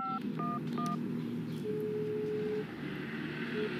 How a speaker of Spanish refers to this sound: Fui directamente al teléfono y marqué un número cualquiera, el primero que se me pasó por la cabeza.